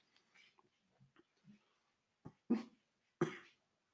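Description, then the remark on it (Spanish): A few soft, muffled breaths build up, then three abrupt, held-back bursts, like someone trying to stifle a sneeze or cough, with no talking. “Eso soy yo casi muriendo, estaba a punto de, de estornudar, toser, no sé, ya con la edad, ya no sabes si estornudas o toses.”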